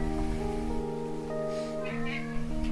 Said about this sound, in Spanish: Bueno gente, hoy si tenemos invitado especial, tenemos un gato molesto. Si, mira, mira cómo chilla la gata.